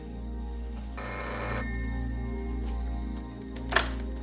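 A telephone rings over a low, steady hum, its tone clear, with a brief noisy burst partway through and a short sharp click near the end. No one speaks.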